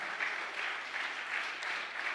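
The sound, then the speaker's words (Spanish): A large crowd applauds loudly and steadily, a dense wash of many hands clapping at once with slight swells in intensity, with no voices heard over it. “Dele otro aplauso fuerte.”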